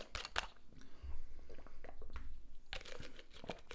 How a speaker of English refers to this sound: As I finish a ghost injury drink, I'm gonna take a sip of this water real quick.